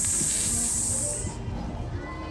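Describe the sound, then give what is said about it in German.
A person makes a loud, sustained sibilant hiss to call a dog, a drawn-out 'ssss' lasting just over a second before stopping abruptly, leaving a low murmuring background. “Hunde hören vor allem die Zischlaute.”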